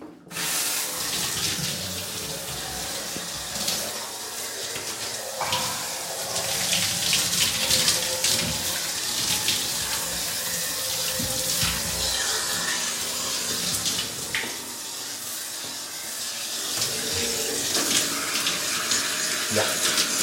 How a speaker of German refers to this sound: So, dann wollen wir uns mal abduschen.